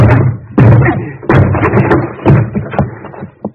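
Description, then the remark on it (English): A door being broken down: three heavy, loud crashing blows land, each followed by rattling and splintering clatter, with no voices. “I'll have to break this door down”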